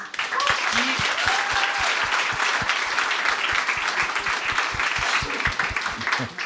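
Steady audience applause for the show's director fills the whole stretch, a dense crackle of many hands clapping at an even level, with a few faint cheers and voices mixed in underneath.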